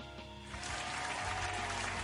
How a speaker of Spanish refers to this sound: Oh, sí. Unos aplausos también.